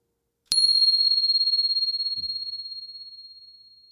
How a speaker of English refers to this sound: So just beginning to arrive at your practice. Here comes the bell.